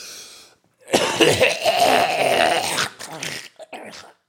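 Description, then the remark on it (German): A voice imitates an old man's gurgling, phlegmy cough: one long rasping, rattling burst, followed by a few shorter, weaker coughs trailing off. “Und jetzt man so ohne, wenn, sie so, wenn die alten Männer husten, dann gurgelt so.”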